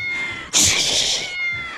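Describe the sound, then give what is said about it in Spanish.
A cat lets out one loud, drawn-out meow lasting under a second, strained like a yowl, with a faint steady tone in the background before and after. “pues quiero que este gato que tengo aquí, este gato, mm, mm, me lo hagas en un príncipe de 20 años, me lo conviertes en un príncipe.”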